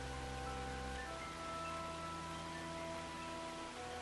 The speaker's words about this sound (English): They then again set out Travelling the next day as the rain continues to thunder down from the heavens. You are all drenched